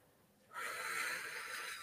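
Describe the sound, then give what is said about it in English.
After a short silence, a single sustained breath starts abruptly and continues as an airy hiss, a shallow inhale drawn from up in the chest. No talking. “So if you're breathing from up here,”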